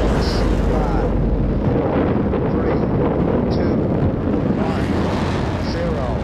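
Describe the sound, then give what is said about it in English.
A rocket engine's launch roar: a loud, steady, crackling rumble with deep bass that fills the whole recording without letting up, overwhelming. “Ignition sequence start. 6, 5, 3, 2, 1, 0.”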